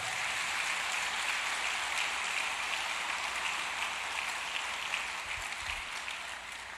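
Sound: church audience applauding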